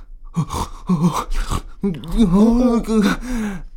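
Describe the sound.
A voice imitates a son's strained, muffled groaning in his sleep, like sleep paralysis, starting with a few short gasping breaths, then a long wavering moan that rises and falls, fairly loud.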